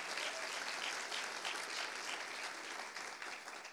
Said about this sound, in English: And he's uh, through the Lord's help doing a wonderful work, great work here at the Mount Olive Church. He is. And why don't you give uh, him a hand clap? Amen.